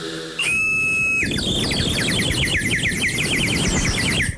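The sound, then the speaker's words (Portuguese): Someone whistles an imitation of a bird call: a steady high note, then a long, rapid warbling run of chirps, loud over a constant hiss of background noise. “na minha mente, é a experiência mais realista de recriação do som de um pássaro que alguma vez foi feita.”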